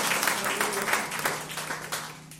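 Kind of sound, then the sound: crowd, audience clapping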